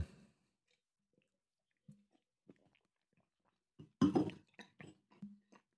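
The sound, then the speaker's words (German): During a beer tasting, someone sips a wheat beer from a glass: scattered soft clicks and a faint glass clink, then a louder slurping sip followed by a few quiet swallows, with no talking. “Da muss ich nochmal trinken.”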